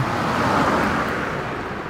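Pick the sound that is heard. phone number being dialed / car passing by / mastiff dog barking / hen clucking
car passing by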